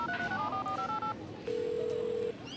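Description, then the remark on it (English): A quick run of about eight touch-tone dialing beeps, followed by a short pause and one steady, longer telephone tone, as if a call is being placed. The sound is clear, with no talking. “Hey, phone. Call KT.”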